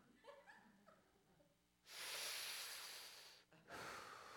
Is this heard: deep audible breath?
yes